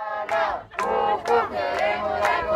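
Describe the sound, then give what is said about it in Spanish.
Families chant in unison at a protest for their children's right to be admitted to school, loud rhythmic shouted phrases repeating in quick bursts with a strong collective voice, energetic. “y la lucha de las familias, a las que escuchamos cantando durante años, ha hecho que este curso casi todos los niños y las niñas hayan sido admitidos en la escuela.”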